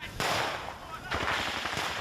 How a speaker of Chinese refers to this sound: 乌军试图夺回俄军攻占的城镇，顿时展开激烈枪战，保卫首都基辅战况不容乐观。